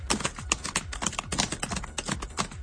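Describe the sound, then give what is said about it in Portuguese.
Rapid, uneven clacking of keys on a powerful computer keyboard as someone types a post for Twitter, a steady stream of sharp clicks with brief pauses between bursts, and no voices over it. “tu que tá com um teclado potente.”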